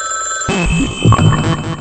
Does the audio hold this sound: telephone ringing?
yes